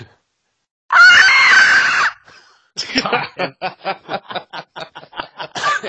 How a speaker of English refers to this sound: Okay, let me see if I can still do it. Remember that squeal I used to be able to do?